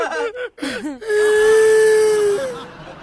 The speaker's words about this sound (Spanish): Pues, sea, está llorando mucho.